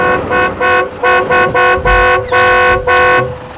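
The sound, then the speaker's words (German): A car horn honks in a rapid series of about eight short, loud blasts, the last few held slightly longer, as the car drives alongside a police patrol car, with a faint background rumble and no talking. “Fahr neben dem Streifenwagen her, Patrick. Und Hupe, Hupe.”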